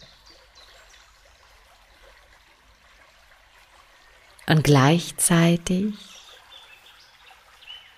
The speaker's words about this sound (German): bringt dieses Fließen, dieses Plätschern des Wassers neue Energie in deinen Körper, in jede Zelle.